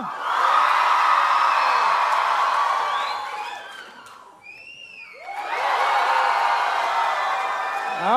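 A large crowd roars with loud, short shouting and cheering for a few seconds, breaks off briefly with scattered whoops, then erupts again into a sustained, energetic cheer; the audience is voting by shouting for which shirt the host should wear.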